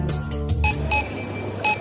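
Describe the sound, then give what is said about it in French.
Three short electronic beeps from a cash register scanner ringing up a week's groceries, the first two close together and the third after a pause, over a low background hum of a busy store. “Ça pour certains c'est l'épicerie pour une semaine. Trois bips.”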